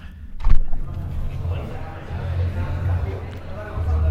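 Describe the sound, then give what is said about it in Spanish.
A recording booth door clicks and thuds open, then a steady low rumble of the ambience outside the booth fills the rest, a continuous murmuring background with no clear speech. “Y ahora para que veáis el resultado vamos a salir, voy a abrir la puerta y vais a escuchar lo que se escucha, a ver si lo pilla la grabadora.”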